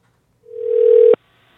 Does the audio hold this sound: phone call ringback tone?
yes